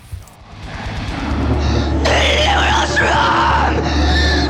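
Black metal by an Austrian band plays at full, dense volume: a wall of distorted guitars over a heavy low drone, with harsh, wavering screamed vocals that rise in after a brief quieter opening.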